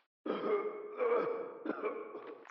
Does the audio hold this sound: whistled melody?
no